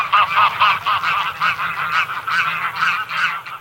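Greylag geese honk loudly and continuously, their nasal calls overlapping in a rapid, repeating chorus like a flock, with no one speaking.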